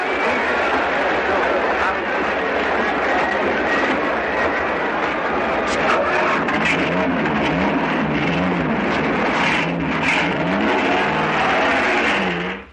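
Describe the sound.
A car engine runs loud and steady for the whole stretch, its drone shifting in pitch as the car pulls away from a hotel and drives on, with indistinct voices mixed underneath.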